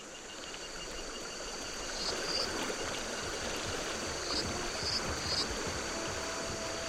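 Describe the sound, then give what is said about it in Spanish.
The Paso River, a large river surrounded by stones and small trees in the Sierra Negra of Puebla, rushes steadily over stones on an April day in a continuous, moderately loud babble, while a few faint, high insect chirps surface briefly above the water. No one speaks. “Estábamos a la orilla del río Paso, en la Sierra Negra de Puebla a una hora caminando desde la carretera.”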